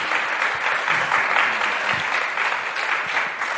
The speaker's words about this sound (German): Lasst uns einen großen Applaus geben.